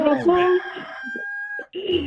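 A rooster crows once, loud and close, a strained, wavering cock-a-doodle-doo that holds a high, bright note before breaking off and rising again.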